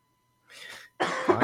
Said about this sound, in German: Sorry, dass ich die ganze Zeit husten muss. Ich habe irgendwas im Hals.